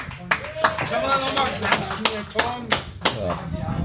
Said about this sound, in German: Danke, dass du hier bist. Einmal Applaus, Leute.